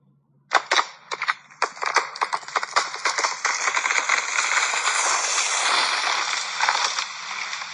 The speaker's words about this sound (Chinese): 他用力向大门撞去，哗啦一声，木头房子也被撞倒了。